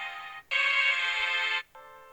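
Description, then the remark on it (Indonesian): A bright piano intro of an orchestral pop-style song plays three sustained chords in a row, a short one, a long loud one, then another short one, with brief gaps between them and no voices. “ada piano-piano kan orang yang nggak tahu pasti kalau nggak dengerin lagu ini kayak eh lagu pop nih lagu pop nih”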